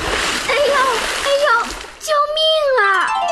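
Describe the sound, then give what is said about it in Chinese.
A little rooster jumps into a pond with a splash, followed by ongoing watery churning while high, wavering squawk-like cries rise over it, ending in one long, loud call. “于是，小公鸡闭上眼，咬紧牙，向池塘里跳去。”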